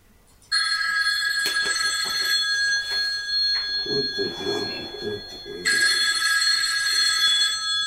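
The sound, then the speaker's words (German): A telephone rings loudly on an outgoing call with a bright, buzzing bell tone in two long bursts separated by a pause, with faint muffled sounds filling the gap between rings. “Lässt er wieder läuten, der Gute?”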